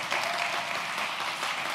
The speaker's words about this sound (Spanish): Eh, eh, no me dejes aquí que aplaudiendo solo.